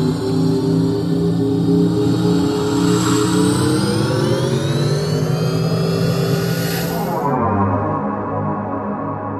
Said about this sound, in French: on va entendre la voiture accélérer.